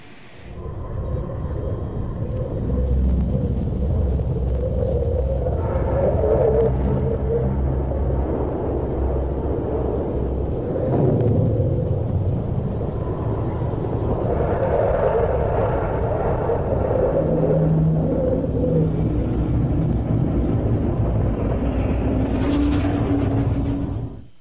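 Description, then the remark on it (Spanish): Radio waves from Mars turned into sound: a loud, continuous low rumbling roar with wavering hum-like tones drifting through it, steady for the whole stretch, with no voices. “Lo que escuchó hace unos momentos es el sonido de las ondas emitidas por el planeta Marte”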